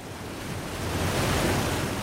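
A steady, dense roar of rushing water at Niagara Falls in North America fills the whole clip, broad and continuous, swelling slightly louder toward the middle with no voices present.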